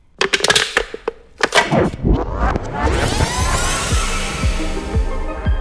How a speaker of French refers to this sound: Et aujourd'hui, on va écouter le son d'une canette de soda.